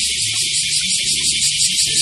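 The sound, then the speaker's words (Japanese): A dense, continuous high-pitched buzz of cicadas in a park fills the whole clip at steady loudness, with faint low rumbling sounds underneath. “えー、セミです。世界の半分以上がセミでできています。”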